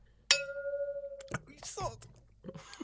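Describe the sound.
Beer glasses clink in a toast: a single bright glass clink rings out sharply and sustains with a clear, high tone for about a second, then voices talk and laugh afterward.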